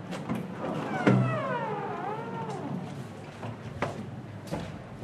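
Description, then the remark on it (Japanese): The large, heavy, refrigerator-like door of the Hakkaisan snow storehouse (yukimuro), used for chilling sake, is pulled open. It starts with a dull thud, followed by a long wavering squeal that bends up and down for a couple of seconds, then a few soft knocks. “なんかこう冷蔵庫のような大きな大きな扉がありますがはいこちらがこちらです雪室はいじゃあ開けていただいてもよろしいですか、入ってみましょう”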